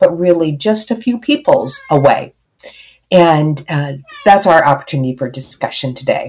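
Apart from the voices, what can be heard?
cat meowing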